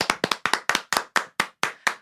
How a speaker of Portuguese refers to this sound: Palmas.